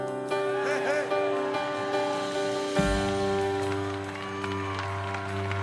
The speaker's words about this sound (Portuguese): Vamos lá, se é para Jesus, aplaude mais forte, porque o nosso Senhor é bom.